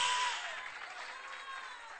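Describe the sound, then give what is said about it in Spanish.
A crowd claps together as praise to God in a sustained, dense burst of applause that stays fairly steady and gradually eases slightly over about two seconds, with no one talking over it. “Dale un aplauso de alabanza a Dios.”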